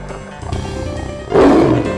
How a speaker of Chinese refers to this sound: 两只牛啊，很开心的洗呀洗呀。洗到一半，突然听到老虎的吼声，